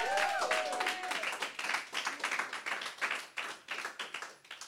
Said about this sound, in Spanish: Si tú lo crees, dale un aplauso fuerte, vamos.